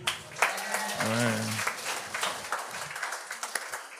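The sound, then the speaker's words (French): A live show audience bursts into scattered applause in answer to whether anyone there has a job, a steady crackle of clapping lasting several seconds, with a brief voice rising over it near the start. “Par applaudissement, y a-tu des gens ici qui ont une job?”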